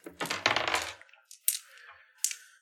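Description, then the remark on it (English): Dice are rolled on a table for an attack in a tabletop game: a quick clatter of small hard objects tumbling onto the surface, followed by two sharp clicks as they settle, with no talking. “Uh, this is going to be against two red dice um, that you're making this attack.”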